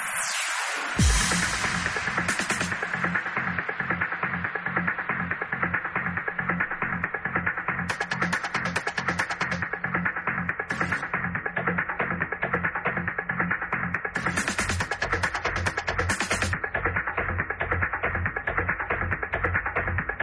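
A loud, steady electronic dance remix plays alone, with a pounding regular beat, bright synth layers and a thick bass line driving continuously, with bursts of crisp hi-hats breaking in now and then.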